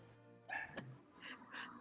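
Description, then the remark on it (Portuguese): A dog barks several times in short, sharp bursts at the front gate, the yaps spaced irregularly over a faint background hum. “Tá você, Não, ele, ele tá latindo lá no, na frente, lá no portão.”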